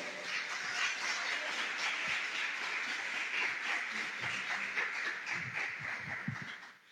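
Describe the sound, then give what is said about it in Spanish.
Loud, sustained applause from an audience applauding God at a preacher's request during a sermon, a dense crackle of many hands clapping at once that holds steady for several seconds before tapering off at the end. No voices are heard. “Si le vas a aplaudir, apláudele fuerte, por favor.”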